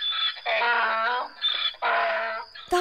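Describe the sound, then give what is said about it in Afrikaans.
A donkey brays loudly in two long, harsh honking bursts, each set off by a shorter, thinner intake note, giving a rough see-saw hee-haw rhythm. “Die dier hou nooit op balk nie.”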